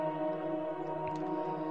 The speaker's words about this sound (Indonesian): Silahkan nikmati momen kamu saat ini. Sembari kamu bernafas, menikmati alunan suara musik di audio meditasi ini